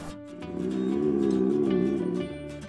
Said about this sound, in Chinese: 不是哦，这个声音不是男孩肚子叫的声音。那到底是什么声音呢？原来是狮子阿布的吼叫声。它可是全非洲最强大的狮子哦，它有着最响亮的吼声。